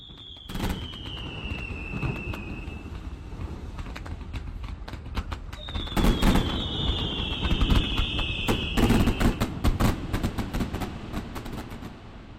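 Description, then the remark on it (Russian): Fireworks at 9 p.m. for the Defender of the Fatherland Day holiday: rapid bursts of popping and crackling bangs fill the scene, with two long whistling shells streaking through. The explosions keep going steadily with no voices. “И в 9 вечера был фейерверк.”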